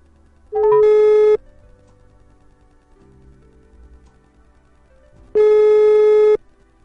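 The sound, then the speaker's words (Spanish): Two long, steady ringback tones on an outgoing phone call to Barton, each lasting under a second with a pause of about four seconds between them, with a low hum in the quiet gap. “no os mováis que vamos a llamar a Barton a ver qué nos cuenta, ¿vale chicos?”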